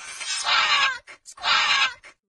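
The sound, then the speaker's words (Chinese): A scarlet macaw calls twice: two loud, harsh, raspy squawks, each lasting nearly a second, separated by a couple of short clipped squeaks. No one speaks. “绯红金刚鹦鹉是这样叫的。”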